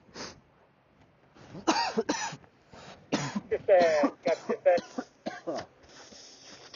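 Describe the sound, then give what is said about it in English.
A person coughs repeatedly in a rough, hacking fit, with several harsh bursts and throat-clearing sounds, fairly loud, fading into a few raspy breaths at the end. “so happy I can cough again.”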